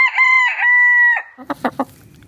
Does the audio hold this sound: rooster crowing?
yes